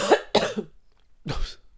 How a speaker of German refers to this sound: Und ich habe einen kleinen Husten, nicht wundern.